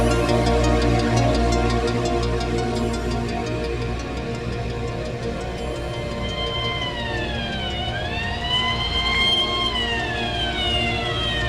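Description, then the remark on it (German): An ambulance siren wails loudly over a deep, rumbling engine as the ambulance leaves a scrapyard, its rising and falling tone sweeping steadily as the vehicle drives off, with no voices present. “Eine gute halbe Stunde später verließ ein Krankenwagen den Schrottplatz.”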